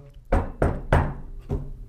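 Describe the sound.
Four solid knocks on a door: three in quick succession, a short pause, then a single final knock, with no talking.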